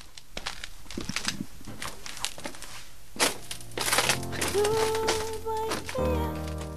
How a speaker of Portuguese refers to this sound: a produtora sai, pé ante pé. Vou-me embora, pronto, olha, vou, lá, lá vou eu pisar este chão.